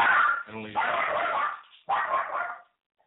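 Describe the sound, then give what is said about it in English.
A dog named Sammy, a mother-in-law's dog being looked after for the weekend, barks loudly in two short, sharp bursts, with a brief high whine between them, then falls quiet. “That's my mother-in-law's dog who we're watching for the weekend.”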